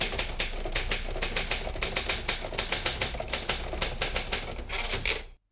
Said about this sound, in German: Früher hat man das auf der Schreibmaschine gemacht und da hat man dann so in die Tasten gehauen, dass das immer so ein bisschen geknattert hat.